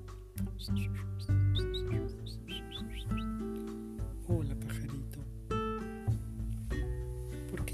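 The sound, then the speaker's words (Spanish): A small bird perched on a garden fence chirps in a quick run of bright, high tweets, then more sporadically, set against a steady low musical drone that continues throughout. “Por fin, un pajarito se paró en la reja del huerto y la saludó amablemente.”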